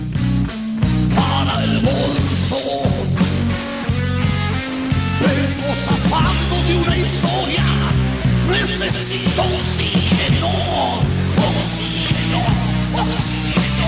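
A full-band blues rock song plays loud and steady, with a driving bass line, punchy drums and guitar riffs filling the whole stretch without any talking over it.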